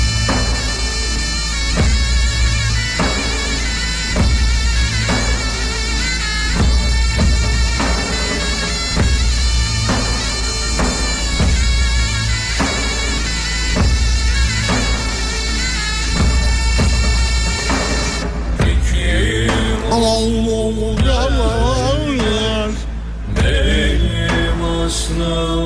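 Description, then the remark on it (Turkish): A loud, full pop song plays through speakers with a steady driving beat and layered instruments, shifting to a sparser, wavering melodic section near the end. No one speaks over it. “Gözlerini kapat sadece şarkıyı dinle.”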